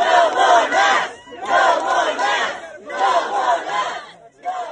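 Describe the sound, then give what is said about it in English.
An angry overflow crowd at a school board meeting in Tennessee shouts loudly in repeated surging bursts, many voices overlapping into a dense, continuous roar that briefly drops between waves. “At a different meeting in Tennessee, there was an overflow crowd.”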